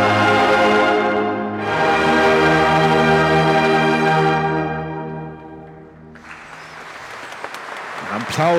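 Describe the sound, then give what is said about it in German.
A loud brass fanfare, the Liboritusch, with sustained chords gives way to a dense, crackling wave of thunderous applause that swells through the final seconds inside a cathedral, as the shrine holding the relics of Saint Liborius is set down during the Libori festival. “Das ist einer der seltenen Momente, wo in einer Kirche tosend applaudiert wird.”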